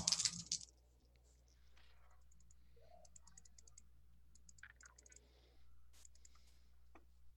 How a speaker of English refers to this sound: Uh, and because I I believe my attempts at dominate make me a pretty hungy boy. Um, I believe I'm rolling with straight dice at the moment.